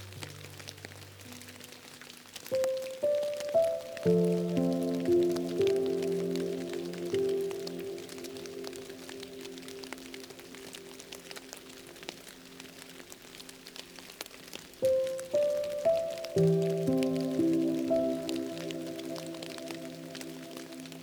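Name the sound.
rain falling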